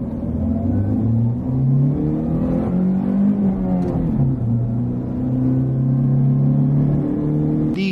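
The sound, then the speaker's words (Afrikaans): A 72 kW 1.3-litre pickup truck engine drones loudly and continuously, its pitch climbing as it revs, dipping briefly, then holding a steady hum, as if heard from inside the cab. “Maar dis 'n gewillige 72 kW 1.3 liter en die kort radverhoudings werk goed in die stad.”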